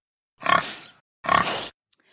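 Two loud pig grunts, each a rough, snorting burst about half a second long, separated by a short pause, with no talking.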